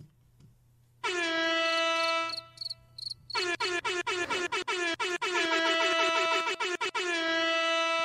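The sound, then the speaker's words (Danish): A loud air horn sounds one long blast, pauses briefly, then returns in a rapid flurry of stuttering repeated blasts ending in a sustained honk. No one speaks. “Jeg tænker, vi kan ære hornet.”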